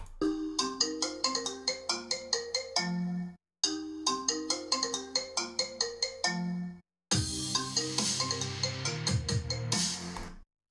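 A remix of the iPhone ringtone, a three-minute mix once used as a ringtone, plays loud and alone: a bright, marimba-like melody loops twice, then a denser, busier variation with heavier bass and shimmering highs takes over.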